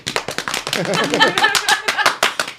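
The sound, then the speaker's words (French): A quick, uneven run of sharp hand claps, well over a dozen, made while playing the Donkey Konga video game, snapping out loudly one after another while a voice chatters and laughs underneath partway through. “tu t'applaudis, tu, ah tapes sur les bongos pour qu'ils tournent en rond de même.”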